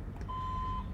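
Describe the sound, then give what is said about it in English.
A single steady electronic beep from a vehicle's reversing alarm as it backs into a parking spot, lasting about half a second, over a low background rumble of engine or traffic noise. “They're still parking. They're still backing the fuck up.”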